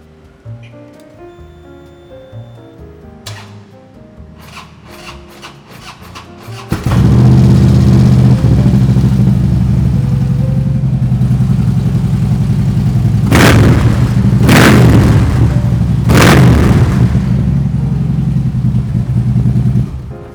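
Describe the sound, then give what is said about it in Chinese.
After a few seconds of music, a deep, loud Harley-Davidson motorcycle engine rumbles steadily at idle, punctuated by three sharp throttle revs in quick succession before settling back to its heavy throb. “接下来我们准备来听一下哈雷。”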